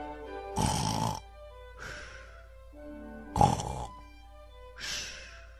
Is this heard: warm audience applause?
no